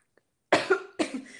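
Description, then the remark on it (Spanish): A short bout of coughing: two or three harsh, chesty coughs in quick succession from a person choking, loud, with no talking. “bueno, te, he hecho entrar tos y todo Perdón, sí, me estoy ahogando.”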